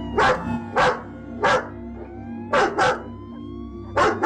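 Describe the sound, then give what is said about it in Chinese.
Dogs bark in about six sharp, loud bursts at an irregular pace, two of them paired quickly together, over a steady low droning hum, from a video released by Belarusian state media claiming Lithuanian border guards set dogs on refugees to drive them off. No one speaks. “白罗斯的官方媒体竟释出影片，宣称立陶宛的边防士兵放狗咬难民进行驱离，立陶宛则反批这是白罗斯的假外宣。”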